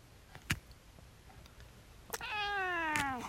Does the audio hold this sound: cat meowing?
yes